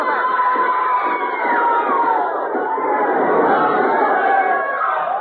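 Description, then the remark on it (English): A crowd of about 200 men and women in the court of the Bastille screams and shouts as the guns of the Bastille shoot them down, a dense, continuous roar with many overlapping high, rising and falling cries sustained loudly throughout the few seconds. “If these rich members don't stop those bullets, he's shooting them down like cattle. Men, women, falling, screaming.”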